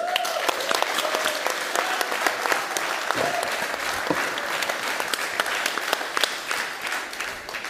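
A live audience applauds steadily throughout, dense overlapping claps at a fairly loud, even level, with a few faint voices and whistles mixed into the crowd noise.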